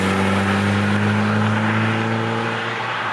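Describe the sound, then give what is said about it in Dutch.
The engine of a 1976 Golf GTI, a former Pon demo car restored to original condition, runs loud with a steady, throaty hum, its pitch holding nearly level before easing off slightly toward the end. No one speaks. “En zo klinkt hij dan.”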